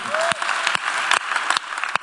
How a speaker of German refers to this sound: Und an diesem Punkt können wir unseren Mitarbeitern, die das hier wuppen, mal einen riesen Applaus geben